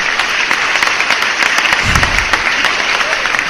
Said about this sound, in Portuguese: Bota aquele aplauso bonito aí para a gente seguir em frente, então.